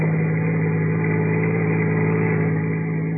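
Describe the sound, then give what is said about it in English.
A car engine drones steadily, a constant low mechanical hum with a faint rumble, heard from the back seat of a car out on the Pacific Palisades late in the evening, with no voices. “in the back of the car”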